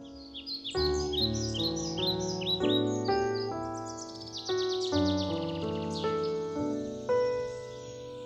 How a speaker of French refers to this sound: Les petits moineaux qui le voyaient venir s'envolèrent.